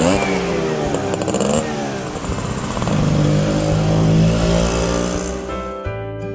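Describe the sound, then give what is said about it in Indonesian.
A delivery-service motorcycle carrying breakfast orders is started with its key and its engine revs, pitch climbing and sweeping as it pulls away slowly, then drops to a lower idle-like rumble near the end. “menyalakannya dan motor delivery service yang membawa tiga paket menu sarapan lengkap plus satu beef burger fluffy meal andalan restoran itu melaju perlahan.”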